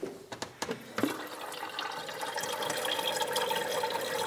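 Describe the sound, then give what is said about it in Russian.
A few sharp clicks and clatters, then a steady stream of tap water pouring into a kettle, continuous, the rushing sound filling out as it goes. “Э, поставь чайник.”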